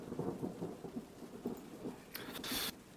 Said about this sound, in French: La pluie tombe à Boston depuis quelque temps déjà.